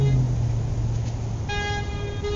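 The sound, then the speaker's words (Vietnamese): A loud, sustained screech of car brakes rises over a low engine rumble, sharpening into a piercing, steady squeal in the second half, as a car brakes hard for a woman who has walked into the middle of the road. No one speaks. “Rồi một tiếng phanh lớn vang lên, trước mắt Hương tối sầm lại.”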